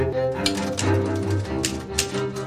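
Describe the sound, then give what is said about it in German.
A handful of sharp, irregular keystrokes on an old mechanical Triumph typewriter that sticks a little, in an Art Nouveau house, spaced out rather than rapid, over a steady humming background with no one talking. “Alte Schreibmaschine steht hier noch rum.”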